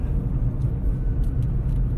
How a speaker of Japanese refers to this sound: なかなか道路に乗りにくいさあ7台の車を見送ってさあ合流でございます